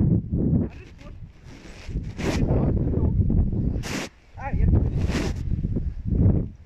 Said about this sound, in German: Jetzt ist krass der Ka äh, Wind, oder was?